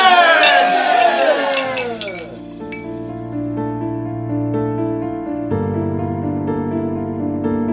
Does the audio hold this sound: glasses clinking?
yes